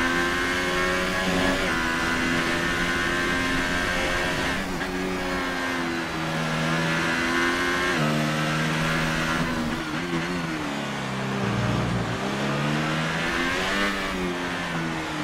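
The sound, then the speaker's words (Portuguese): A McLaren race car engine screams continuously, heard on board during a race, its pitch climbing and dropping sharply with each gear change as it accelerates and brakes, loud and steady with no talking. “Você vai vendo aí toda a potência do motor da McLaren.”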